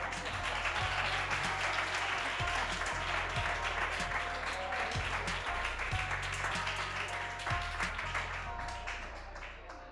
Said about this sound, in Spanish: continuación, el mismo aplauso para nuestro segundo compañero